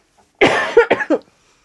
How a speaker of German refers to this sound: Ich muss kurz husten, einen Moment.